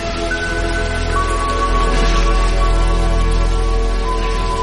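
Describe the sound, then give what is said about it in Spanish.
Heavy rain pours down outside against a balcony in a steady, dense hiss that never lets up, with big hard drops going plaf, a faint low hum running underneath and no voices. “Llueve todo el tiempo afuera tupido y gris, aquí contra el balcón con goterones cuajados y duros que hacen plaf y se aplastan como bofetadas uno detrás de otro, ...qué hastío.”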